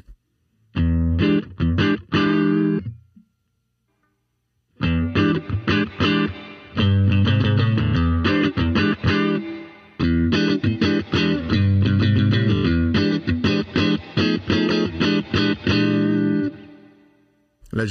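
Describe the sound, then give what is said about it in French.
An electric guitar on its neck pickup, played through a preamp with the reverb set to zero, plays dry in a warm, slightly driven tone: a short burst of chords, a brief pause, then a long stretch of strummed chords and riffs that ends abruptly. “je vous fais un petit peu de son cette fois avec la reverb à zéro et puis je vais mettre un petit peu de, de reverb sur sur la console.”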